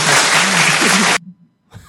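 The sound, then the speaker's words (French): A loud burst of an applause sound effect played at the end of a show fills the first second or so, a dense crackling wash that cuts off abruptly, followed by a near-silent pause and a faint voice. “On vient de se faire applaudir.”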